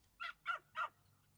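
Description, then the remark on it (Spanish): A female puppy gives three quick, high-pitched barks in an even rhythm, each yap short and a little raspy, heard faintly with quiet pauses between them and no one talking. “Al cuarto día, salía de cobertizo como de costumbre y la cachorra ladraba con su linda voz.”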